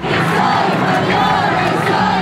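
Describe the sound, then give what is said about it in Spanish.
A large crowd of women of all ages, marching on International Women's Day from the Monumento a la Revolución, chants in unison demanding an end to violence, many voices merging into a loud, sustained, rhythmic roar with rising and falling syllables and no individual speech standing out. “Madres, hijas, trabajadoras, estudiantes, mujeres de todas las edades exigían al unísono un alto a la violencia.”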